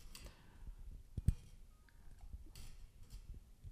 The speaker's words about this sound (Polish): możemy w te szczelinki włożyć długopis i przestawiać ukryte tu przełączniki. Y, te przełączniki zmieniają nam charakterystykę brzmienia tego mikrofonu.